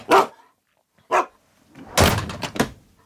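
A dog barks: two single sharp barks with short pauses between, then a louder, rougher burst of several barks. No one speaks.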